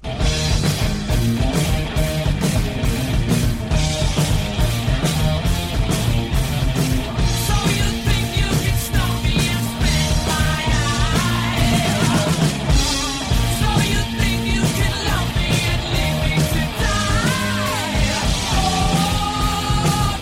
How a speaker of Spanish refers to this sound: Vamos a la parte del rock cuando vienen las guitarras duras, que también mucha gente la cataloga como incluso de heavy metal.